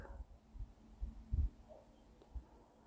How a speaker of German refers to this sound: Ich bin sicher an ihrer Brust, weil ich ihr Herz schlagen höre. Und ich genieße diesen Herzschlag.